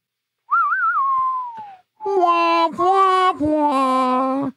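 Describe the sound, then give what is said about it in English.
A person whistles a short rising-and-falling phrase, then a voice sings three sustained, wailing notes imitating Eastwood's whistling western film theme. Fairly loud, and no talking. “I have a feeling that every division game coming up, Eastwood's whistling theme will start running through my head.”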